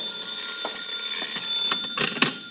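A telephone rings with a steady, high electronic trill that carries through the whole moment, with a few soft clattering handling noises underneath and no one speaking.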